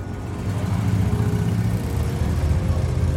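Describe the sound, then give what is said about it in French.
A police motorcycle engine hums and drones as it passes on Route 114 around 3:30 pm, then moves away, a steady low rumble with slight revving, holding at a fairly even loudness throughout. No voices. “Vers 15h30, une moto de la police passe sur la route 114, puis s'éloigne.”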